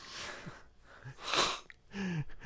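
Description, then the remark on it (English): A kazoo with a piece of paper stuffed inside it blown in three harsh, breathy bursts, more raspy hiss and sputter than clear tone, with short pauses between blasts. “It's I a kazoo version out. of the Hulk”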